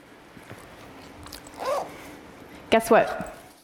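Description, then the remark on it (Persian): A bag zipper is pulled open in a few quick, raspy strokes: a short run first, then a louder, longer burst of scratchy zipping, with light rustling between. The bag is full of books. “حالا من میخوام که محتویات ساکم رو به شما نشون بدم.”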